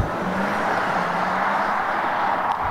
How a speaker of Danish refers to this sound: Ej, den laver egentlig ikke så meget motorlyd her, som jeg huskede, men... Men hvis man ved, hvordan en normal elbil lyder, så er der meget sådan rumlen.